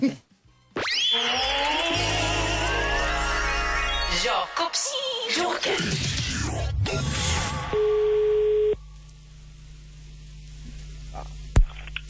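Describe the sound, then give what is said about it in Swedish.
Electronic telephone-line sounds with buzzing hum and static, rising warbling tones, then a steady ringing tone before the call is answered, stopping abruptly, followed by quiet line noise and a faint click. No one speaks. “Jag ringer”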